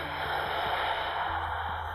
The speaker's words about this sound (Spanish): Así que bueno, te voy a pedir que tomes una respiración profunda